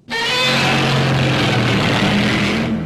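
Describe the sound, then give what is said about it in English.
A loud, sustained monster roar with a harsh, grinding tone and a low pitched edge, like bowed contrabass strings slowed down, holding steady for about three seconds with no talking. “rubbed a leather glove through the loosened sh- lower strings of a contrabass and altered the pitch and the speed of the recording until the final roar was conceived.”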